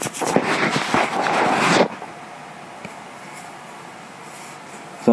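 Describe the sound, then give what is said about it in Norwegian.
A container lid is opened in a kitchen with a dense, scratchy scraping and rubbing for almost two seconds, then an abrupt stop into quiet, with a faint click and a brief sound at the end. “Så åpner vi lokket til denne her, som du hører.”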